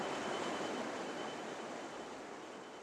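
A steady, dense roar of water rushing down a 13-metre drop into a lake at a sewage treatment plant in Diemelsee, Hesse, Germany, broad and continuous, holding an even loudness that eases only slightly toward the end.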